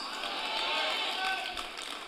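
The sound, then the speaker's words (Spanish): Two or three people clapping, a steady patter of handclaps lasting a couple of seconds at moderate volume, with a faint murmur of voices underneath. “Yo sé que los dos o tres que están aplaudiendo están divorciados.”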